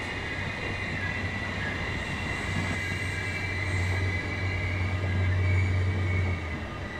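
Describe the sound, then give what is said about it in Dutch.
A train passes steadily on its rails, a continuous loud rumble with a low hum and high metallic tones, swelling slightly toward the end, with no voices. “Weer een trein.”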